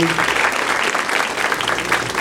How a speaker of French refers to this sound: Merci euh, tellement d'avoir rempli le Comédia Club, euh, c'est incroyable. J'aimerais que vous donniez une bonne main d'applaudissement à tout le monde qui est là.